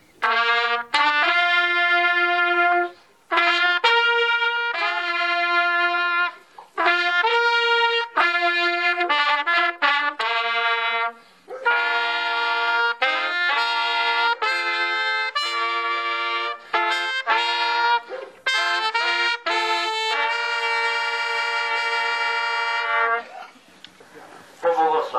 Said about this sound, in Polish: I na cztery trąbki myśmy to zagrali tę intradę przed poświęceniem.